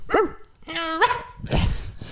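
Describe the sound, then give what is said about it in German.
A dog sound effect laid over speech: a short bark, then a drawn-out whining yelp that rises at the end, followed by a rougher, noisier bark. No one speaks. “Machen wir ein Hundegeräusch drüber.”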